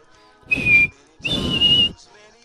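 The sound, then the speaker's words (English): A person whistles two short, steady high notes, the second held longer than the first, each with a breathy, airy rush underneath. Fairly loud, with no talking. “But his team gave a whistle.”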